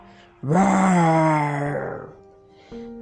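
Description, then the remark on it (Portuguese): A voice imitates a lion's roar: one long, loud, rough vocal growl that starts abruptly, holds with a strained, harmonic-rich tone, then fades into a low trailing sound. “O leão saltou dos arbustos e deu um grande, um enorme rugido.”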